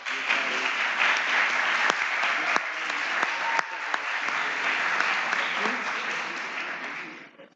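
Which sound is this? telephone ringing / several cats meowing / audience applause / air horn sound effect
audience applause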